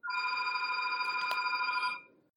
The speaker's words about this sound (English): Can we? Can we talk? Can we, can we talk about your ringtone for a second? I, I would like to talk about your ringtone.